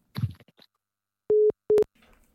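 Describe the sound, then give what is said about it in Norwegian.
Two loud, steady electronic beeps of a phone busy tone after a man hangs up on a phone call, the first beep longer, sounding right after a brief burst of line noise and followed by faint static. “Han la på. Hører du det? Han la på nå med en gang.”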